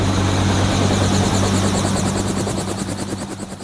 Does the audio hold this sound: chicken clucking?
no